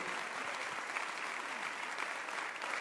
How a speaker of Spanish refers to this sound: ¿cuántos dan un aplauso sobre alabanza al Dios de la gloria? Alabados a Señor.